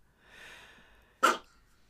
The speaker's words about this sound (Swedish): Ja, det fick jag bekräftelse av utav en av våra två små hundar som finns här när jag spelar in. Och jag låter de ljuden vara kvar.